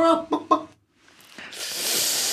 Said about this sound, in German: Das war Huhn.